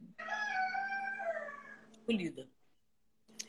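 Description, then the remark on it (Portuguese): A chicken in a neighbour's yard in Bahia lets out one long, wavering, drawn-out call lasting over a second, followed by a short, rough burst of sound and a faint brief note near the end. “É uma galinha que tem aí?”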